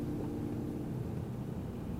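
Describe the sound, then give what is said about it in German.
A steady low rumble of road and engine noise fills the cabin of a moving car on the way to an Asian grocery store, constant and fairly loud with no voices or other distinct sounds. “Wir sitzen gerade im Auto auf dem Weg zu dem Dao,”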